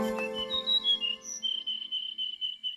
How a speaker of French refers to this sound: les oiseaux que François euh, Porcheron a mis dans le jingle que nous venons euh, d'écouter